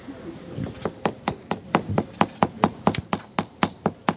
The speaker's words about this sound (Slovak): čo počujete, je zvuk kladiva, ktoré práve osádza kameň pre doktora Pastora.